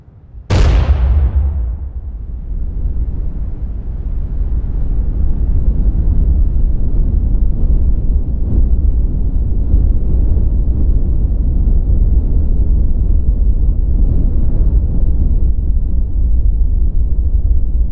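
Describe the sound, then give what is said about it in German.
A sudden, sharp blast cracks out and gives way to a deep, sustained rumble that rolls on loudly and steadily for many seconds: the explosion of the first atomic bomb, the Trinity test, at a US test site in the New Mexico desert on 16 July 1945. “Juli 1945 um 5.29 Uhr und 45 Sekunden explodierte die erste Atombombe auf einem Testgelände der USA in der Wüste von New Mexico.”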